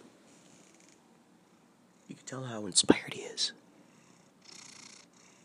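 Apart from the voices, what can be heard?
cat purring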